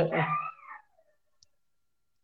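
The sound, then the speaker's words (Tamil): A single short, wavering dog howl slides downward in pitch and fades away within a second, followed by near silence and a faint click. “பேசாம நாய் நாய் எல்லாம் ஓலையிடுது”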